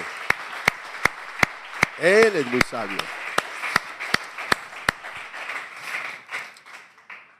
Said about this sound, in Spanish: Él ese aplauso al Señor.